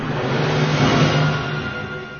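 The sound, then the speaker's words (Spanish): A car engine rumbles loudly, its low droning hum swelling slightly before easing off as the vehicle speeds down a street. No voices are present. “Después vio el coche que tomaba la calle con alevosía. Roxana cruzó frente a la aniquiladora velocidad del automóvil.”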